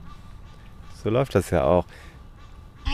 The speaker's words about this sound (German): das sind also ähm, ziemlich äh, eindeutig Nilgänse